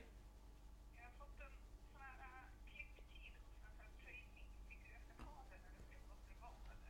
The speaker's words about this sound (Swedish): nu oh, ringer din mobil. Ja men vi klipper bort det. Det är din mamma.